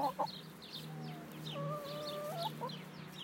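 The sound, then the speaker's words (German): A hen clucks softly and steadily, with a few quiet, drawn-out tonal calls over a low, constant background hum; faint, with no voices. “sie hat so ganz leise gemacht. Das war die Sydney.”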